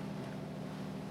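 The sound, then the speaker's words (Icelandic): The motor of a small stolen boat runs at sea in the dark, a steady, even low drone with a constant rush of wind and water noise over it. No one speaks. “Í illa þefjandi björgunavestum. Um borð í stolnum bát.”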